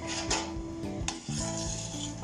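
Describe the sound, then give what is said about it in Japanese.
Milk and chai in a pot, sweetened with about a tablespoon of sugar, simmering and starting to bubble around the edges, a steady soft fizzing hiss with faint clinks, with no one talking. “大さじ1杯分ぐらいのお砂糖を入れましたそうですねお鍋の中の、えー、牛乳とチャイがですねちょっと周りがブクブクしてきたので”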